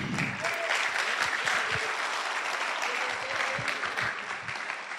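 Steady audience applause for a person fills the whole stretch, a dense wash of many hands clapping at an even loudness, with a faint voice briefly audible underneath near the start.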